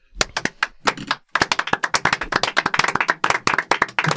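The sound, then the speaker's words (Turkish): A few people in a room clap for each other, a quick, uneven patter of handclaps that starts briefly, pauses, then builds into steady, dense applause for several seconds. “Birbirini alkışlıyor. Odada Sencer de alkışlıyor.”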